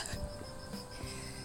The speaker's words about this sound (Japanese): えー、この辺は秋の虫の声がするエリアです 聞こえますかね